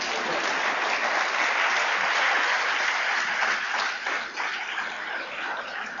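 An audience breaks into dense, steady applause, many hands clapping together for about six seconds, holding a loud, even level before easing slightly toward the end.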